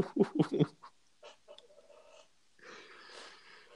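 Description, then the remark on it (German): A chair creaks and groans: a quick run of loud squeaky bursts, then quieter drawn-out strained creaking, with no one talking. “Das war mein Stuhl.”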